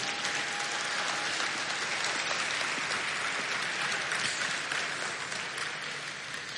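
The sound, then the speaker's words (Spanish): An audience applauds the Lord during a sermon, a dense, steady roar of many hands clapping, holding strong throughout before easing slightly toward the end, with no talking over it. “Dele aplauso al Señor por eso.”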